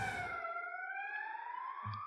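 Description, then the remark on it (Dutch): An ambulance siren wails steadily and loudly, a sustained high tone gliding gently in pitch as it passes, with a low rumble of traffic at the start and end. “We laten even de ambulance passeren.”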